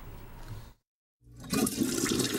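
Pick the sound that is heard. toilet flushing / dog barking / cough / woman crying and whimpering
toilet flushing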